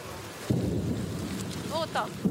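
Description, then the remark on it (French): Distant explosions in a city rumble low and muffled, with a heavy thud near the start and another at the end, while faint voices briefly rise in the background. “Vous avez entendu ces explosions. Toute la journée, c'est comme ça.”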